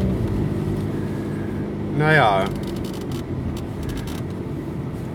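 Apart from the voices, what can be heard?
car driving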